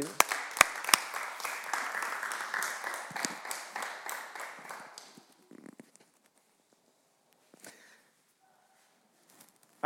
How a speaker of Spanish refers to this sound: Hey, dale un aplauso desde tu casa ahí donde estás, ¿ok?